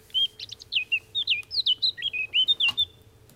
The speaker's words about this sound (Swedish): Svarthästhättans sluttrudelutt, väldigt vackra ljudande.